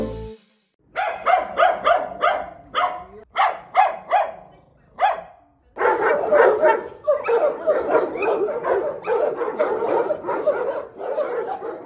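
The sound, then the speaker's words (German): Several dogs bark at an animal shelter in Dortmund, Germany, in quick, repeated bursts, first in separate volleys and then overlapping into a continuous loud chorus of barks and yips, with an echoing sound. “Was ihr da gehört habt, war der Sound des Dortmunder Tierheims.”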